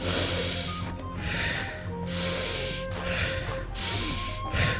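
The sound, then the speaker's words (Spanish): Three slow, deep breaths drawn in and pushed out, a steady series of long airy rushes with brief pauses between them and no talking. “tres veces, respiración honda y let it go, let it go, let it go.”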